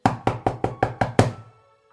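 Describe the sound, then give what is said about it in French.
Seven quick, evenly spaced knocks on the wooden door of the Harizal's house in the middle of the night, the last one a little harder, then silence. Fairly loud, with no voices. “Au bout de quarante jours, et en plein milieu de la nuit, alors que toute la maison dormait, sauf le Harizal, qui était plongé dans son étude, on toqua à la porte.”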